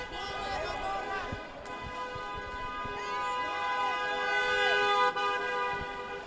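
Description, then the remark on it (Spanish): A car horn honks loudly and almost continuously as a car drives through the middle of a crowd at a protest where tear gas has been fired and people are running, its steady blaring tone running through the whole moment over a noisy crowd with voices calling out. “Tiene un carro ahora por el medio.”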